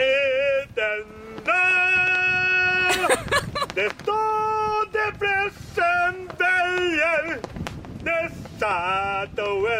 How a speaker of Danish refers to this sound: Han synger øh, nationalsangen på polsk, kan jeg høre. Han synger den der på dansk.